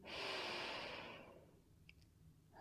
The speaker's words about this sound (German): Nimm dann gerne zwei, drei lösende Ausatmungen durch den Mund. Tief einatmen durch die Nase. Ausatmen. Ah, gerne mit einem Seufzer, mit einem Ton.